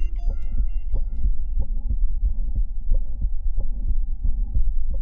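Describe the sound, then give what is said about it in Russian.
A stethoscope recording of a heartbeat with mitral valve prolapse: steady, repeated low thumps with a harsh, cough-like murmur between beats, over a constant low hum. No one speaks. “В этом примере шум напоминает кашель.”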